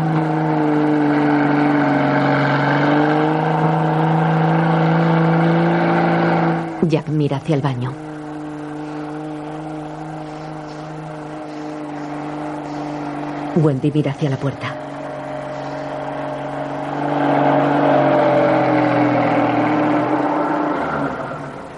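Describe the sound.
A snowcat engine drones steadily as it advances through a blizzard toward a hotel, its low hum sliding slightly in pitch and swelling louder near the end over a hiss of wind. A voice speaks briefly twice over it.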